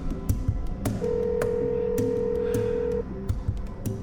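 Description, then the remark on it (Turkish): A telephone rings with one steady electronic tone lasting about two seconds, clear, set among scattered clicks and light knocking sounds, with no one speaking. “Telefon zili çalarken az sonra odaya girecek Ali'ye ne diyeceğimi düşünmeye koyuldum”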